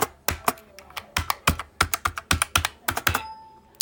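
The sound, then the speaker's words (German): Quick, irregular keypresses clatter on a braille display keyboard, about twenty crisp clicks in bursts, fairly loud with no voice over them; a faint tone lingers near the end. “Mal zum Vergleich, hier ist meine Breitzeile”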